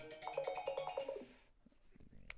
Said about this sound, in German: Klingelton, Falk, den alle jetzt mitbekommen haben